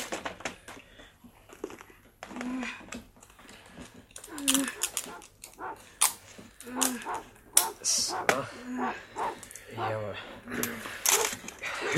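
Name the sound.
dog barking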